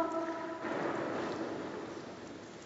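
A shouted word, "Echo!", has a drawn-out vowel that rings on as a fading echo for about half a second, then gives way to a steady, hissing background rumble in a huge, reverberant corridor about 15 metres wide.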